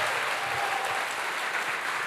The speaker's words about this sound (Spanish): Dele fuerte ese aplauso al Señor y que suene la trompeta.